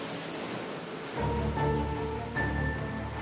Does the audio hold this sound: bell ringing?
no